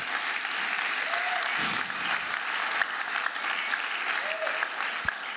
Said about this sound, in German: Ja, geben dir einen Applaus.